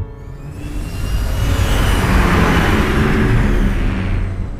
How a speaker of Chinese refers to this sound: 飞行车汇入一条浩浩荡荡的空中车流